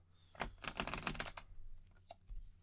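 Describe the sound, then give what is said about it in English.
A deck of playing cards being shuffled: a quick, dense flurry of crisp papery clicks lasting about a second, followed by a few softer scattered taps. “And also, this isn't much in way of shuffling them because it's just moving each card a little bit.”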